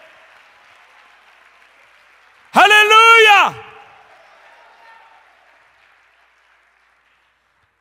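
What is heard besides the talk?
audience applauding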